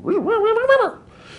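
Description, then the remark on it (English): A voice imitates the modulated chirp of two rapidly spinning black holes: a wavering, rising-and-falling vocal tone that wobbles up, dips, then sweeps upward before cutting off, fairly loud, lasting about a second. “If the two bodies are spinning very rapidly, I have that same chirp, but with a modulation on top of it.”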